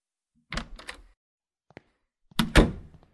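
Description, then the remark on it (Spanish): A bedroom door is handled with a few rattling knocks, then a small latch click, before someone entering the room closes it behind them with a loud thud. No one speaks. “Entré a mi habitación y cerré la puerta tras de mí.”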